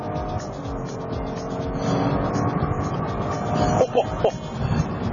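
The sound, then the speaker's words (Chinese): A car engine roars under full-throttle acceleration in sport mode, a dense, steady rumble that swells louder after the first couple of seconds and holds, with a few brief whining rises near the end. “这个时候我们油门到底试一下，哇”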